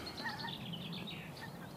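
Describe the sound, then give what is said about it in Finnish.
Many wild birds, including many geese, call at once outdoors in spring, a busy overlapping chorus of chirps and honking calls, steady throughout with no talking. “tässä on paljon hanhia ympärillä ja lintuja menee välillä taivaan täydeltä”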